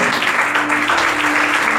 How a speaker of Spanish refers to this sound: Denle un aplauso al Señor, por favor, esta noche.